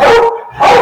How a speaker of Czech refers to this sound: To je můj pes. Uh, uh, jeden z mých dvou psů, co tady leží, mi no, Jeden větší než druhý.